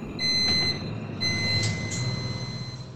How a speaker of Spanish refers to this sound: Este es el momento en el que nuestra cabina de flujo laminar, en la que estamos cultivando y generando los microrriñones, empieza a funcionar cada día que llegamos al laboratorio.